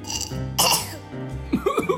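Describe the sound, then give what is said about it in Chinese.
A single short, rough cough bursts out, loud and breathy, set between humming, sing-song vocal sounds before and after it. “嗯，你怎么咳嗽了？”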